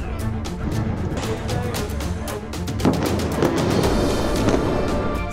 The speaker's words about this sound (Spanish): Comienzan a lanzar cientos de proyectiles y algunos impactan en sus blancos.